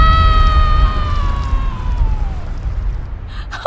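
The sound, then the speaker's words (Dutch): A volcanic eruption explosion: a loud, sustained deep rumbling roar, with a high whistling tone that slides steadily downward over the first couple of seconds before fading out. “Het lijkt alsof dat vuur en die gassen een uitweg zoeken. Dat gaat hier ontploffen, denk ik.”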